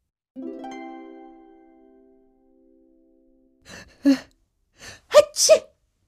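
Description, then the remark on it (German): A drawn-out, tonal voiced intake gives way after a pause to a series of sharp, explosive sneezes, caused by dust tickling the nose, loud, in quick irregular succession with no talking. “Entschuldigung, da hat mich wohl gerade der Staub in der Nase gekitzelt.”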